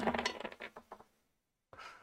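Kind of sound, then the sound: four dice being rolled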